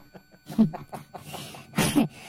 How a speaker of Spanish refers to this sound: 25 de diciembre a las 12 a.m. Empieza usted a toser.